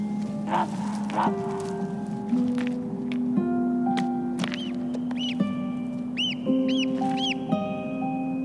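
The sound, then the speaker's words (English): A barnacle goose chick peeps in high, thin, repeated calls while its mother answers with lower, steadier calls, the two voices overlapping continuously. “responds to its mother's calls.”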